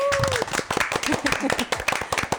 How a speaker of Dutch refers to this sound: En natuurlijk ons geweldige publiek hier in de studio. Eventjes een applausje voor het publiek.